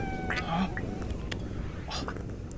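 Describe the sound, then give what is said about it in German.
A small creature purrs in a steady low rumble, with a couple of brief, higher chirping calls rising over it. “Jetzt schnurrt es wieder.”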